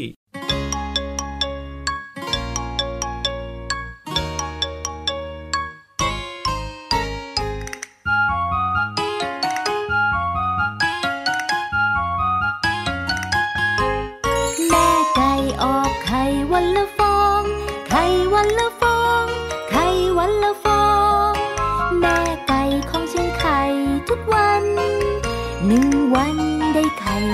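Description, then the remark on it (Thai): A bright, bouncy children's tune plays on its own for a mother hen and her chicks to listen to, starting with plinky chime-like notes in a steady rhythm, then filling out with fuller instruments and a lively melody that stays loud throughout. “เดี๋ยวพี่รับนะจะเปิดเพลงเพราะๆให้แม่ไก่กับ ลูกเจี๊ยบฟังด้วยดีกว่า ว้าวดีจังเลย จะได้แบบว่ามีความสุขมากๆสุดยอดน้องๆก็ฟังด้วย”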